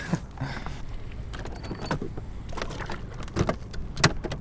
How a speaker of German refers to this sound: Ja, das, was ihr jetzt gehört habt, das war jetzt der Elektromotor. Wir müssen jetzt beim Schleppen einen Elektromotor nehmen. Wir haben da einen Bugmotor, den wir mit der Fernbedienung steuern, was für die ja, Handhabung sehr komfortabel ist.